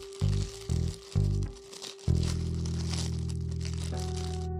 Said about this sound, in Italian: L'audio è perfetto, sente il rumore del cellophane.